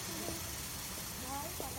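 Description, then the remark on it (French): Steady steam hissing from an old Scottish-built 1924 steam locomotive of the Royal Livingstone Express, already steaming at Livingstone station, fills the background, a continuous broad rush with someone talking over it. “Car il y a là devant moi, sublime, une loco-vapeur.”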